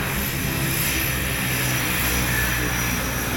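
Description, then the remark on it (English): The engine of a small Seventh-day Adventist aviation-service propeller plane, carrying cargo of food, supplies and medicines to hard-to-reach villages, drones steadily and loudly throughout, a constant roar with a low rumbling hum and no voices. “The cargo is quickly unloaded here, and we are off to our next appointment.”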